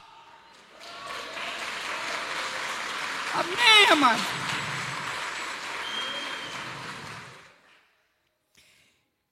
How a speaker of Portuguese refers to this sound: Aplauda o Senhor, porque Ele é o maior.